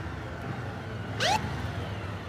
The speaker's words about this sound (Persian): از دور یک موتور پلیس نزدیک میشه